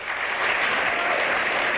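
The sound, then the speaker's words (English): A crowd applauds steadily during a speech at a memorial, a dense wash of many hands clapping at once with no voices on top, holding an even level for the whole two seconds. “Don't applaud. Don't get your frustrations out by clapping your hands.”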